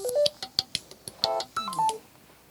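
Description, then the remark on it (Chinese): A phone rings during an interview with a quick electronic ringtone: a run of short, bright beeping notes jumping between pitches in an uneven melody, with no one talking over it. “呃，原则上来讲，对不起哈，不至于谁打电话了。”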